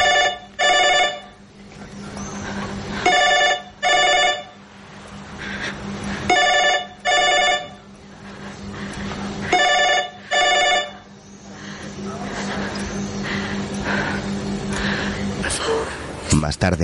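A telephone rings in loud double bursts, four rings spaced about three seconds apart over a low steady hum, then falls silent as faint background sound continues.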